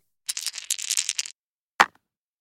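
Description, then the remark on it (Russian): A die is rolled in a tabletop game to check driving a car. It rattles and clatters in a quick burst for about a second, then lands with one sharp knock after a short pause, showing 20. It is fairly loud, with no voices. “Броник в раскубике.”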